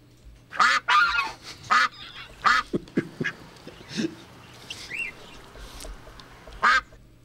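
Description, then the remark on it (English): A duck quacks loudly, a string of harsh, nasal calls in uneven bursts, sometimes doubled, with a few softer quacks near the end and no talking. “A Lame Duck and His Quacks”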